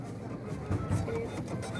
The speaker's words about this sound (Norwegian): skriver ut kinobilletter på Saga kino i Oslo